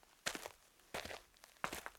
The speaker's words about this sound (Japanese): 小屋への道は車の轍によってかろうじて残っているような悪路であった。懐中電灯が照らす先以外は漆黒の闇。聞こえてくるのは自分たちの足音のみ。